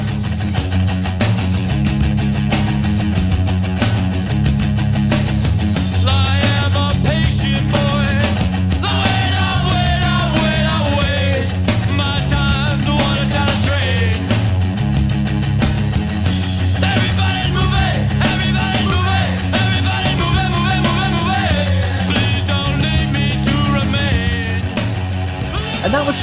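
A rock band plays at a steady, loud level throughout, with a repeating bass riff, pounding drums, dense guitars and a raw vocal line weaving over the top.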